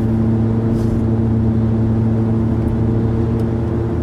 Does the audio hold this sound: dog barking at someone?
no